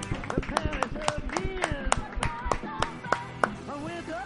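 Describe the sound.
Scattered applause of sharp, uneven claps, roughly a dozen, in tribute to a cuarteto singer born on this day, ringing out over voices talking and calling at the same time.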